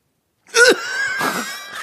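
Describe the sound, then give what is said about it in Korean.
A sudden, fairly loud voiced cough from a host on a radio show bursts out, followed by a drawn-out, raspy throaty sound with a second rough push partway through, with no clear speech. “아, 그, 아, 아, 해도 왜 기침을 하십니까?”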